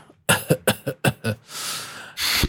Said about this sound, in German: Ah, Entschuldigung, ich rede jetzt schon die ganze Zeit durch, da darf ich ja auch mal ein bisschen husten hier.